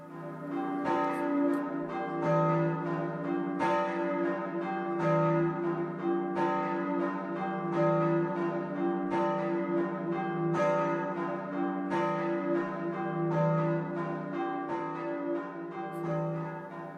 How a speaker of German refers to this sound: Das Bayern, das Glockenschlagen. Wir hören nochmal ein Beispiel, das mal aus Großhabenning, nicht weit von Holzkirchen.